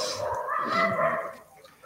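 A dog barks and yips in a quick, strained run of high-pitched calls lasting about two seconds, moderately loud, with no one talking.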